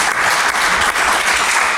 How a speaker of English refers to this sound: Round of applause. I think this is a lovely story.